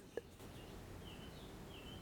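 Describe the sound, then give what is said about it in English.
Faint birds chirp in the background, a few thin, high calls scattered over a low, steady ambient hum. No one speaks. “before we begin, I'm wondering um, if our listeners can hear the birds in the background because”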